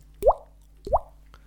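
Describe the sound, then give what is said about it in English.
Two teardrop sound effects: distinct water-drop plops, evenly spaced about two-thirds of a second apart, each a quick rising bloop with a short tail, clear against a quiet background. “So I give it two te- teardrops, so it sounds like this.”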